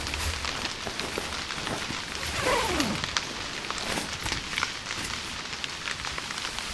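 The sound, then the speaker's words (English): Steady rain patters on a tent with a dense, continuous crackle of drops, fairly loud throughout, and a brief falling whistle-like tone partway through. No one speaks. “Lie down and hear the raindrops on your tent.”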